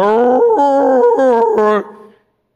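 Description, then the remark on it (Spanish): A dog howls and whines in a continuous, warbling vocalization with rising and falling pitch, sounding almost like it's trying to talk, as its owner opens the door on arriving home, clear before trailing off. “Pero cuando veo las muestras de amor del animalito, que cuando está más sentimental que otros días, voy abriendo la puerta y comienza a tratar de hablar.”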